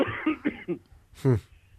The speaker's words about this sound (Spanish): Sí, tose, tose, recupera el... que alguien y traiga agua, por favor, a este chiquillo que va a morir.